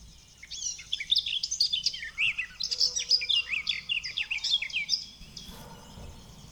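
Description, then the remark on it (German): A songbird sings a rapid, continuous warbling song full of twittering chirps and quick trills for about five seconds, clear, before fading into quiet background noise. “Aber die hat mehr so ein Zwitschern dazwischen.”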